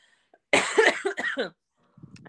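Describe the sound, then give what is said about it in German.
A loud fit of coughing: several harsh coughs in quick succession lasting about a second, followed by quiet and a faint low rustle. “Moment, ich muss kurz husten.”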